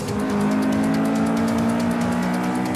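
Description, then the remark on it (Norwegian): A racing car engine from the driving video game Forza Motorsport 6 drones at a steady high pitch, holding a loud, sustained whine with faint rhythmic pulsing throughout, no voices. “Forsa Motorsport 6 representerer kanskje ingen revolusjon i sin sjanger, men gjør det godt der det teller mest, og det her er kanskje det peneste bilspillet jeg har sett.”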